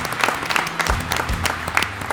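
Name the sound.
audience applause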